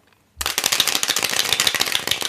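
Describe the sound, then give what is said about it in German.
A cocktail shaker rattles with ice after a brief silence, a loud, rapid clatter of cubes churning continuously in a steady shaking rhythm. “Shake it, shake it, shake it.”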